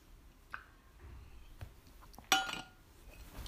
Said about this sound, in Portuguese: Será que só eu, eu a fechar a garrafa? Não sei,